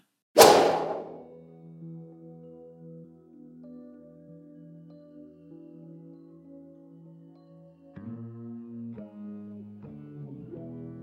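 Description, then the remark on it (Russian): A single sharp, whip-like swish of a baseball pitcher's first pitch, thrown with the right hand, cuts through the air right at the start, then fades into sustained low musical tones that carry on and shift near the end. “Правая рука взмывает. В кровавой косметике по белому выпущен первый мяч”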